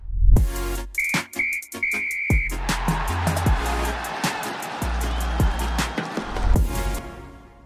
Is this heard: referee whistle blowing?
yes